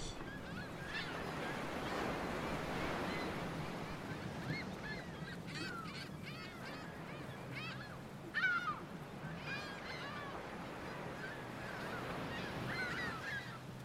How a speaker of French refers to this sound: En vol, vous croisez une nuée de mouettes et de goélands virevoltant derrière un bateau de pêche, à l'affût de poissons à emporter.